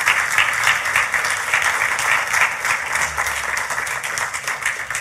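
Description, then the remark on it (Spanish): An audience at a Spanish-language church service breaks into loud, sustained applause for the King of Kings, Lord of Lords, a dense steady wash of many hands clapping that holds its level for the full five seconds with no voices rising above it. “Puede darle un fuerte aplauso al Rey de Reyes, Señor de Señores.”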